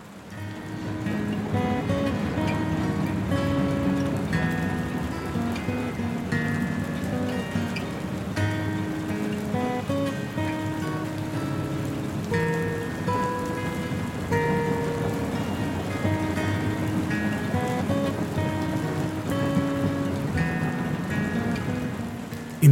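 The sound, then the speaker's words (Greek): Steady, continuous rain pours down at an even volume for the whole stretch, layered with sustained, soft musical tones and no voices. “Συνέχεια, όπως περιγράφει κάτω από αδιάλειπτη βροχή.”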